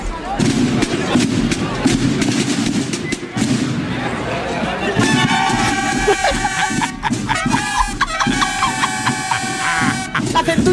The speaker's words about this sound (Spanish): eso que vamos a escuchar es la banda …. un pueblo de. un pueblo de Cuenca. La banda …, mira cómo suena. El tambor por lo menos suena bien.